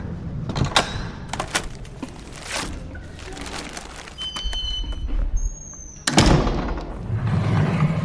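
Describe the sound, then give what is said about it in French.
Elevator doors clunk and slide with mechanical thumps, a brief electronic tone, then a heavy rumbling whoosh of the doors and motor, with no one speaking. “J'arrive. Avec ascenseur.”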